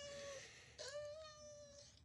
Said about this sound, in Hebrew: הנה מצאתי חתול. זה חתול? לא? זה כן. הוא במצוקה, כן, נמצא כן.